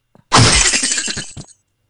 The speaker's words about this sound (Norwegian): Det er lyden at du dreper den der lille eh, ja. fyren, og så kommer det penger ut av den